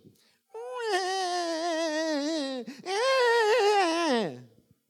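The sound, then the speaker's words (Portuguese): A voice imitates a whining baby, mimicking how 'spiritual babies' pray, with two long, wavering cries, the first about two seconds, the second rising then sliding down, loud and nasal with no words. “Sabe qual é o grande problema dos bebês espirituais? é que eles oram assim, ó.”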